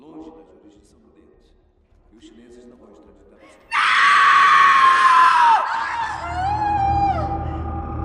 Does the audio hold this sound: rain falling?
no